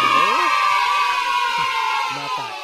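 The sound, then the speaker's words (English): A burst of crowd cheering, loud and sustained for a few seconds, with overlapping shouts and whoops rising above a dense wash of applause-like noise. “If you get the answer right, you will hear this sound.”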